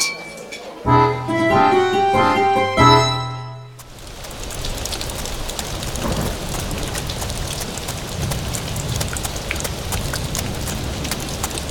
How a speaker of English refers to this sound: Gents, the river ahead ain't overflowed none, and this here flash rainstorm appears to be letting up right soon.